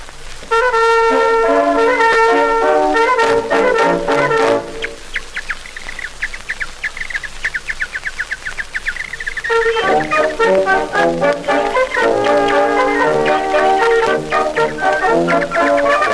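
An old Edison phonograph record of the Garde Républicaine military band playing the waltz "Volga des oiseaux", loud and continuous, with a middle passage of rapid, bird-like whistled trills before the full band returns.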